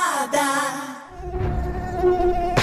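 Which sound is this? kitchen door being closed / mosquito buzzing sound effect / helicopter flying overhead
mosquito buzzing sound effect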